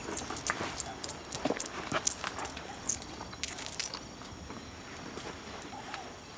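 A bearded man at a stable draws coins from a cloth pouch and hands them to another man, making a run of light, irregular metallic clinks and jingles, with soft rustling between them and no one speaking.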